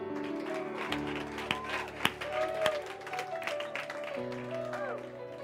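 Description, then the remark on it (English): An audience claps and applauds as a clap offering, scattered sharp claps blending into a steady patter, over sustained organ-like chords and a murmur of voices. “Come on, give a clap offering.”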